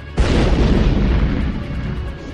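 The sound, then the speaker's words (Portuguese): A loud explosion bursts in suddenly with a deep, booming low end, then rumbles on with a sustained roaring blast that fades only slightly over the next couple of seconds. “Eles olham o negócio explodindo”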